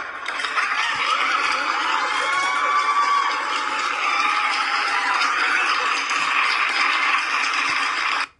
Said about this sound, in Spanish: Pero invité a una fisioterapeuta, así que por favor les pido Muchos aplausos para mi fisioterapeuta